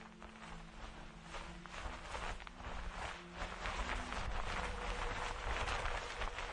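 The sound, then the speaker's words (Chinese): Footsteps crunching and rustling over dry branches and rotten leaves in a courtyard, a steady series of soft, scratchy steps over a constant low hum, with no talking. “不知为什么，听着胖子的脚步声，我的心底开始莫名的感到一阵阴冷和害怕。”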